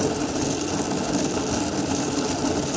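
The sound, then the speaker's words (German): A ball lying between the four wheels of a skateboard is turned so all four wheels spin at once, tuned to a resonance, making a continuous, resonant rumble with a mechanical whirring hum that holds an even level throughout, with no voices. “der Ball liegt zwischen vier Rollen des mhm. Skateboards mhm. und du drehst eigentlich am Ball”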